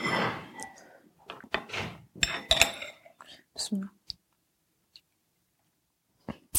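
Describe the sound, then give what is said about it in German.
Thick soup being poured into a bowl: a short wet splashing rush, followed by a few sharp clinks and knocks of dishware, then near silence with a couple of faint taps. “okay, ich gieße das mal ein.”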